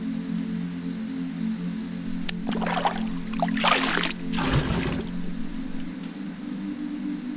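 Fresh, lukewarm water is poured from a splintery scoop to rinse a woman's hair, in a couple of splashing gushes over a few seconds, with a steady low hum underneath and no talking.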